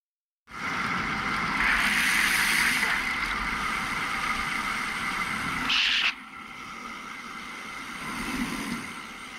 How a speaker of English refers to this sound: Then you'll hear one car go by.